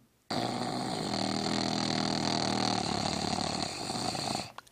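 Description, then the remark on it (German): A continuous buzzing, snore-like hum made by a human voice during Brahmari breathing practice, imitating a male black bee, held steadily for about four seconds, fairly loud, then breaking off. “Ich muss jetzt zugeben, ich weiß nicht genau, wie die männliche schwarze Biene klingt, ja, aber ich weiß, wie Brahmari oder Brahmari gemacht wird, Du machst also den schnarchenden Klang.”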